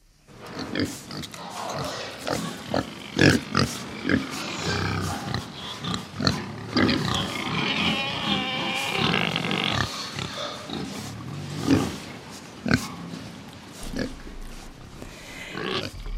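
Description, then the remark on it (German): Several pigs on a regenerative farm grunt and oink, a busy overlapping chorus of snorts and squeals that runs throughout, with sharper bursts standing out now and then. “Grundlage für die regenerative Landwirtschaft mit glücklichen Schweinen ist natürlich der Boden und dem soll neues Leben eingehaucht werden mit diesem Ansatz.”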